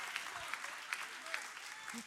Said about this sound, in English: Some of you didn't mind clapping your hands when the Lakers won the finals, but can you clap for Jesus? Are you with me? Come on.